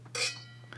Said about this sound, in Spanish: él estaba sirviendo el vino, entonces él no supo dividirlo correctamente